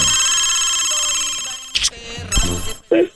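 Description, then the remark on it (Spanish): A telephone rings with a steady electronic tone that holds for over a second, then breaks off into a few short clicks and thumps, like a handset being picked up. “A ver, suena el teléfono ahí. Sigue sonando, sigue sonando.”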